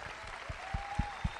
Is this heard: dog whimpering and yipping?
no